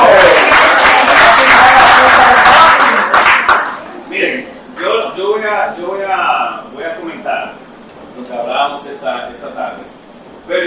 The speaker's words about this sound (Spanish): Correcto. Un aplauso,